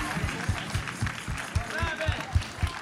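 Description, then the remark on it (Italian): Steady applause from an audience for the winners of a satire award, dense crackling claps, while voices speak over it and low thumps pulse at a regular beat underneath. “La satira è stata premiata. E venite a prendervi l'applauso.”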